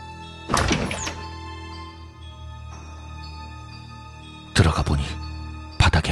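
The door to a child's room thuds open, with a heavy clunk at the start and two more sharp knocks of the latch and frame near the end, over a low, steady eerie drone.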